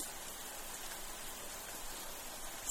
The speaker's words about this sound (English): While the rain lightly hits the window panes.